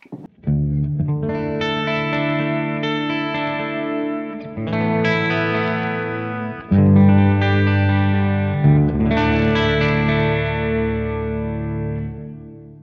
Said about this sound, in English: which that can be a pretty cool sound in its own, but you know, if you don't want that chorus sound with the top of your guitar, just ride that depth down.